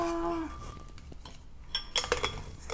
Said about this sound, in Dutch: Ik heb hier eh, een paar dingen van de blender. Ik wilde de blender pakken, maar nu pak ik de mixer, want die lag op de blender. Tadaa!